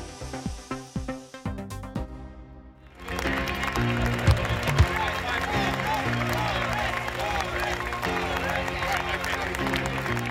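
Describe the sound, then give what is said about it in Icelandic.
Scattered clapping gives way to a loud, sustained crowd roar as British Prime Minister Boris Johnson walks on stage in Manchester to address Conservative Party members; many voices cheer and chant his name in unison over steady rhythmic applause that continues to the end. “Ef Grant er hlustað má heyra fundarmenn kalla nafnans og hú spila baba og ræli undir.”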